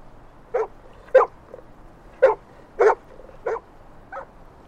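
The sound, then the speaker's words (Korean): A dog barks six times in short, sharp bursts with uneven gaps between them, clear, with no talking. “그건 멍멍이 네가 생각해도 반칙이지?”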